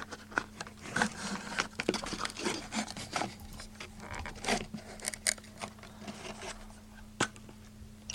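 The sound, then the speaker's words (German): Dry ratchet-like clicking and rasping in irregular bursts, with a few sharper clicks standing out over a faint steady hum; no one speaks. “Klingt so ein bisschen wie eine Und Knarre.”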